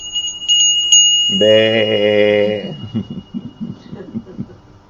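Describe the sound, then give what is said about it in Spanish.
A small bell, rung by a speaker for an audience, rings out with a few quick strikes, its bright tone lingering, before a voice holds a long, sustained note and then a person starts talking. “¿No les tocan así la campana, el cencerro a los borregos?”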